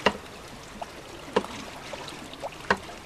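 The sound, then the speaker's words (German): Water rushes steadily along a small centuries-old mountainside irrigation channel (suone) in Valais, while a sharp wooden knock from a hammer driven by a small water wheel cuts through at regular intervals, three strikes spaced about a second and a half apart, clear. “So konnte der Suonenwärter hören, ob das Wasser läuft oder er Laub, Sand oder Zweige beseitigen musste.”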